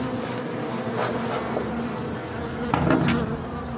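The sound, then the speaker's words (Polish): A dense, steady hum of many honeybees buzzing around an open hive during a beekeeper's hive inspection at an apiary; a large colony with a honey super on the hive. A few sharper knocks and a louder swell of buzzing near the end; no one speaks. “Przegląd uli na pasiece”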